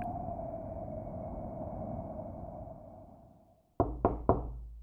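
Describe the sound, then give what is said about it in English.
Two people knock three times, sharp and loud, in quick succession on the shut wooden door of a program hut on Occupation Road, following a steady low hum that fades away into a brief silence. “The door of the wooden program hut on Occupation Road is shut. Henry and Johnny knock again.”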